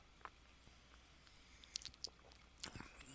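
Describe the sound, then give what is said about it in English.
Someone takes quiet sips of beer from a cup: soft wet slurps and small mouth clicks scattered over a few seconds, with no talking. “So even sipping it from the, the cup,”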